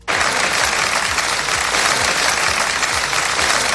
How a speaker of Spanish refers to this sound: Escuchas los aplausos con los que se rompía ese minuto de silencio.